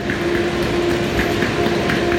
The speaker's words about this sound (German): Ja, wir hatten gehofft, der Bahnsteig leert sich noch etwas, nachdem da eine Zug weg ist. Das war aber ein Trugschluss, weil anscheinend ganz viele Leute auch nach Westerland wollen.